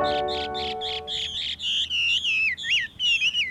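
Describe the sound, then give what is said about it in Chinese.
A Taiwan hwamei sings a loud, clear run of bright whistled notes: first a quick series of repeated chirps, then longer slurred, looping phrases rising and falling in pitch, with no talking. “好，不卖关子了，这是台湾画眉鸟的叫声。”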